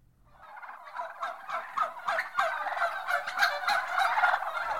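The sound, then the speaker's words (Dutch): A crowd of chickens at the Tuesday poultry market in Rotterdam clucks and squawks all at once, a dense, continuous racket of overlapping calls that swells slightly and stays loud for the whole stretch, with no talking. “Iedere dinsdag was er kippenmarkt in Rotterdam.”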